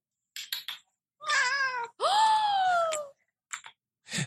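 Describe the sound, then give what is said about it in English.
A cat in a video meows loudly twice in long, drawn-out wavering calls, bracketed by short clicks and rustles; no one speaks. “Oop, let's see if this one's a chatty video.”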